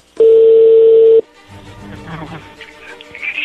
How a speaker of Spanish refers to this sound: pues ahí se está marcando, ahí le va a llamar el lobo